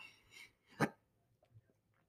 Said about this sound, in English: I got the hiccups. I am sorry. I got the hiccups. My granny used to say hiccups meant you growing.